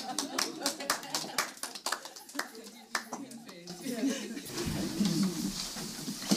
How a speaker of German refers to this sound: Schon mal positiv. Also Applaus.